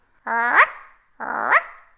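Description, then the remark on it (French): A dog barks twice, two drawn-out, strained barks with a harmonic, almost howling quality, each lasting about half a second, fairly loud with a short pause between them. “Aboyait le chien, et une petite fille chantait dans la cour.”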